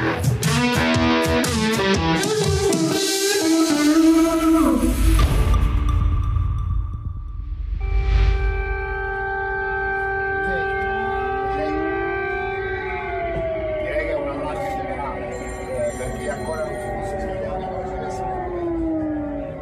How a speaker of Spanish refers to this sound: Lo que ustedes escuchan son sirenas antiaéreas que ayer sonaron en Kiev, la capital de Ucrania.